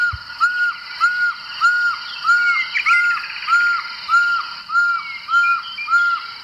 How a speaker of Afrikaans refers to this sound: Dan die witkooluil, die mense wat hou van kampeer in die bosveld, sal jy altyd die witkooluiltjie by jou hê, kroongeel oë en die pragtige geflikte veertjies.